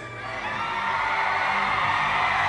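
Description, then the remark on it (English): A large audience roars with sustained shouting and cheering, a dense wall of voices that swells slightly louder over a couple of seconds, with scattered whoops rising above it. “Somebody shout!”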